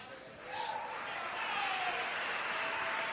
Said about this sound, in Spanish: Hoy, mira, por favor, antes que nada, yo quiero que te regales un aplauso.